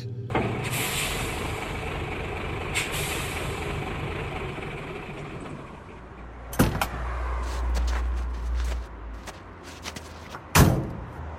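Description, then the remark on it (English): A truck idles with a steady rumble while two people climb out, shuffling and creaking, then two separate doors slam shut a few seconds apart, loud. “Get out, out of the truck, both of you.”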